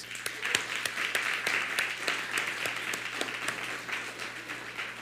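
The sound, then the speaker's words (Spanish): An audience applauds steadily in farewell at a session on the letter to the Philippians, a dense wash of many hands clapping at an even level, with a few sharper individual claps standing out. No one speaks over it. “Pues les amamos, les bendecimos, les vamos a despedir con un fuerte aplauso y un fuerte abrazo.”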